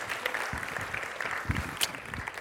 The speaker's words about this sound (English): Let's give him a round of applause if we could.